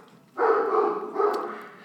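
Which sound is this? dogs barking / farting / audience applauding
dogs barking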